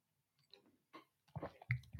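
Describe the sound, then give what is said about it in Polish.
Quiet sipping of water: a few faint wet clicks, then louder gulping and swallowing noises toward the end, with no talking. “Przerwa na łyk wody.”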